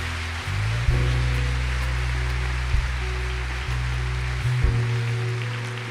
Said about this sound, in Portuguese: Vamos aplaudir Jesus para essas pessoas.